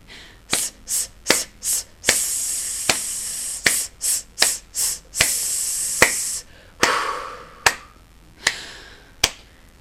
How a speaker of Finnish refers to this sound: Tehdään jumppa, hengitystukijumppaharjoitus. Mennään tempossa, koska niin me tehtäis laulussakin.